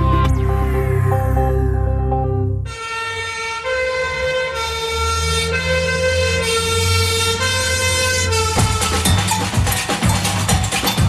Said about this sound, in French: En pleine nuit, une sirène appelle au feu tous les pompiers.